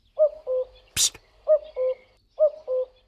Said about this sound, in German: Hören Sie den Kuckuck? Ja.